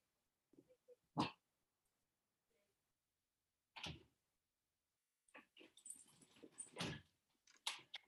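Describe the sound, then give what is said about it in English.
A dog barks in sharp, isolated bursts, a few seconds apart, then in a busier cluster of barks and scuffling noises toward the end. Loud, with no talking. “I'll honestly, it's so annoying having a dog.”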